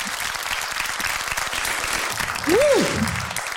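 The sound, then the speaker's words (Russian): A crowd claps steadily in a dense, continuous patter of many hands, with a short rising-then-falling whoop cutting through near the end as the applause swells slightly. “можно под ваши аплодисменты.”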